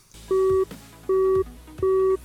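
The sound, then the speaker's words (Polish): A telephone busy tone after a call ends: three steady, evenly spaced beeps, each about a third of a second long, loud and clear against faint background noise. “Połączenie zakończone.”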